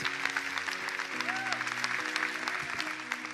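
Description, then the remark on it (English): A crowd claps steadily for Jesus and for everyone who said yes, in a dense, sustained wash of applause, with faint cheers and a brief whistle-like tone riding over it. “Come on, let's clap. Let's really clap for Jesus, for everyone that said yes.”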